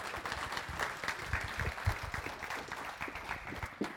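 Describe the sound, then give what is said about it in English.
An audience applauds for Jesus with dense, steady clapping that holds at a fairly even level for about four seconds, with no voices rising above it. “So, round of applause for Jesus.”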